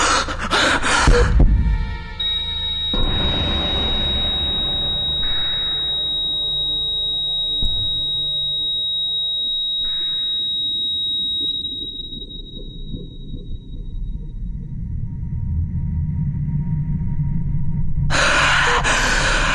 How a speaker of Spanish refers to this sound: Respiras profundo, fuerte, desesperado. Te sientes nervioso, asustado.